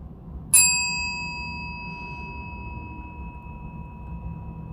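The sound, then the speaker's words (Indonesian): A single bright chime rings out once as a cue to take a long, deep breath in a guided breathing relaxation, its clear metallic tone lingering and slowly fading over several seconds above a soft, low background hum. “Sebentar lagi, saat denting berbunyi, ambillah nafas panjang dan dalam.”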